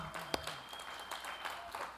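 A church audience applauds for the church's marriage pastor, a dense wash of overlapping claps with a few sharper hand claps standing out, fairly quiet overall.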